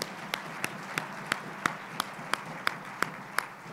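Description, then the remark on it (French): An audience claps for God in steady unison, about eleven sharp claps at a quick even beat over a constant wash of crowd noise, with no talking. “On peut l'applaudir, on l'applaudit, on ne l'applaudit pas parce qu'en haut, ils attendent.”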